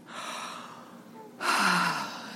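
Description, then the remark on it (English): A voice imitates a small, girlish yawn: a breathy intake followed by a louder, airy exhale with a soft falling voiced tail. It is fairly quiet, with no talking. “And she would yawn, a little girl yawn.”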